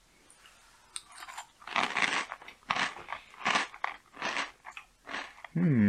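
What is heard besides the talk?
crunching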